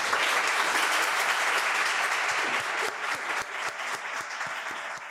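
Sustained applause from a group, dense overlapping claps at a steady loud level, thinning slightly toward the end with some individual claps standing out.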